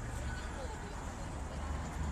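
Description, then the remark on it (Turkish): Steady, dense rumble of busy street traffic with a constant low roar and hiss of passing vehicles, with indistinct voices mixed into the background. “Yani e, trafik hareketli gözüküyor.”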